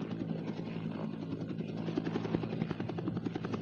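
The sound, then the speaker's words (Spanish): A helicopter roars as it approaches a small island in a crater lagoon, its rotor blades chopping in a rapid, steady thump beneath a dense engine whine that stays loud and constant throughout. “El estruendo de las aspas del helicóptero lo llenaba todo.”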